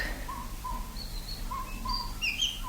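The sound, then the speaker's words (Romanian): Starlings singing: a scatter of short whistles and chirps at varied pitches, some high and thin, over a steady low hum, with no voices. “Cântă graurii.”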